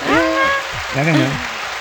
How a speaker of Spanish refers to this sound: Estuvieron de vuelta geniales, como siempre. Merecen un aplauso.